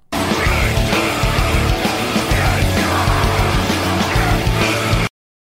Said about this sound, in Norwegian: Hva er det vi hører av eh, fem sekunder? Hva slags death metal er det vi hører?